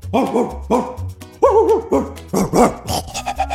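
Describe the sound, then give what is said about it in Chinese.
A pack of nine big dogs wearing brass-studded collars barking fiercely outside a barn, loud overlapping barks and yelping whines coming in quick bursts, one after another, with no talking. “随着这一声尖啸，谷仓外头传来了一阵令人毛骨悚然的狗吠声。”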